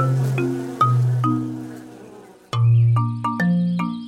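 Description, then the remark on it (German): Loud, droning buzz of angry wasps in two bursts, the pitch stepping down as they zip off, with sharp little clicks between. No voices. “Dich gereich ich noch, dachte der Tiger unter Wasser, als die wütenden Wespen davonflogen.”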